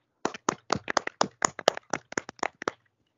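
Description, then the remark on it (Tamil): A small group claps their hands in a quick burst of about a dozen sharp, slightly uneven claps lasting under three seconds, moderately loud, then it stops. “நாங்களாம் podcast start பண்ணியிருக்கோம் தட்டுங்கடா”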